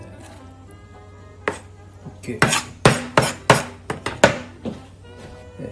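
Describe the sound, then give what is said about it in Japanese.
A knife chops chicken for curry on a cutting board: about ten sharp thuds in an uneven, fairly quick run, with a brief spoken word near the start and a low background hum. “鶏肉が切れたんで”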